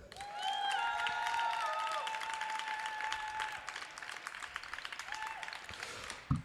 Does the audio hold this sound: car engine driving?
no